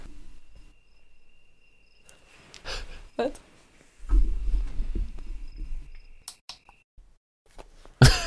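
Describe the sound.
A wake-up light alarm plays a steady, thin, high cricket chirping for several seconds, fairly faint, while muffled voices and low rustling noises come and go over it.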